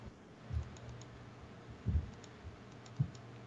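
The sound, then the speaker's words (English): A few soft computer mouse clicks, with one quick double click in the middle to drill down into a heat map of radio repeaters in the area, and single clicks spaced out before and after. No one speaks. “So if you double click in the tri-state, you just want to keep double clicking so you can drill down.”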